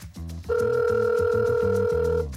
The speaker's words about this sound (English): This is what you hear uh, if you call his cell phone and he is indisposed.